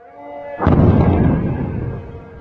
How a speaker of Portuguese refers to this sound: Com as explosões, a produção de petróleo ficou comprometida, a cotação disparou e a tensão no Oriente Médio teve uma escalada.